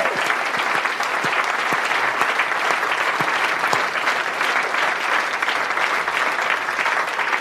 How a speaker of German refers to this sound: Erstmal nochmal Danke an das Publikum hier im Schmidtchen. Ja. Ein ganz großartiges Publikum. Könnt ihr euch mal eben selber beklatschen. Das war richtig toll heute Abend hier.